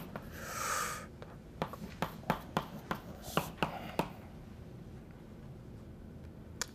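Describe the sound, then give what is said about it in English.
Pen-on-paper writing sounds as someone writes down a reference: a brief scratchy stroke, then a quick series of sharp taps and clicks, quieting to near silence with one last tap. No one speaks. “you can look at your sheet of paper while I, I just want to write down the, the reference in case anybody wants to look this more.”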